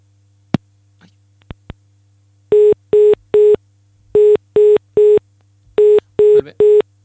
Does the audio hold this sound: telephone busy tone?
yes